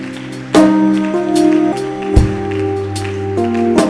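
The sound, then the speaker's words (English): An audience claps steadily, a dense patter of many hands blending with loud, sustained keyboard chords that shift every second or so. “Oh, keep clapping, keep clapping.”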